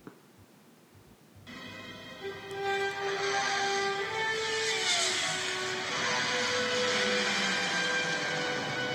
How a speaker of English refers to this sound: some traffic, traffic noise.